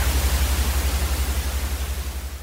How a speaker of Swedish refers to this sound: Men vad är det egentligen som låter bra i en fläkt i en bilkupé?